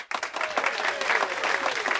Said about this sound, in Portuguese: Salve de palmas para ele.